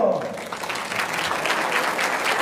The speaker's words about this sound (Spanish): Fuerte el aplauso.